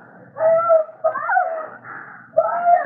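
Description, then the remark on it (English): A woman screaming upstairs in a house, thin, wavering high-pitched wails in three drawn-out bursts with short breaks between, muffled and echoing. “Hey, somebody up there is screaming at that.”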